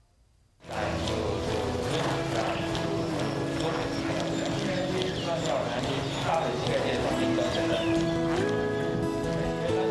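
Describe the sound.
Hooves of a horse ridden by a 19-year-old novice rider clop along at a steady walking pace, a run of repeated knocks that continues throughout, mixed with a dense, busy background of voices and tonal sound after a brief quiet start.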